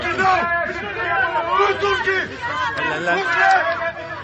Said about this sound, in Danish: Det, I hører her, det er nogle indbyggere på Lesbos, der står på havnen og råber ud mod flygtninge og migranter i en gummibåd, at de skal tage tilbage til Tyrkiet.